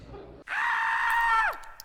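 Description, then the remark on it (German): A person lets out one loud, sustained scream lasting about a second, starting abruptly and ending with a sharp downward slide in pitch, heard on its own with no talking. “Ja, sie hatten ihren Schrei und jetzt kommt der Test.”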